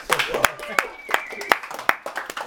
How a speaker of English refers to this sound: So you can give them a round of applause, yeah.